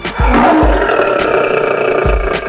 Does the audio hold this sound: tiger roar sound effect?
yes